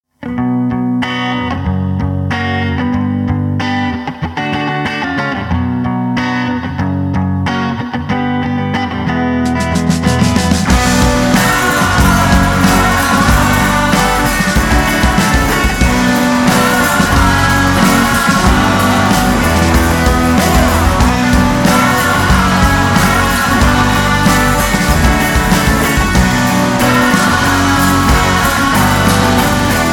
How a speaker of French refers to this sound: Passons à quelque chose de plus orienté rock avec un groupe dont j'aime beaucoup le nom